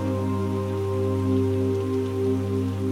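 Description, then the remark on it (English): Steady rain patters continuously beneath a low, sustained musical drone, the soft hiss of falling drops even and unbroken throughout, with no voices. “The sound of the rain begins to soothe your body and your mind.”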